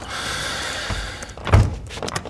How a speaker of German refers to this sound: Mach die Tür hinter dir zu.